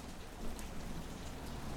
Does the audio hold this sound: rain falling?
yes